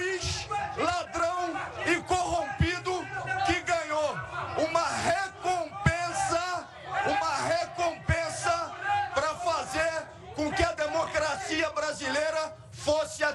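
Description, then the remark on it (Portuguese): A crowd shouts loudly and continuously, many raised voices overlapping in a dense, energetic roar that swells and dips without any pause for the full length. “Um juiz que se corrompeu e, apesar dos gritos, um juiz lá.”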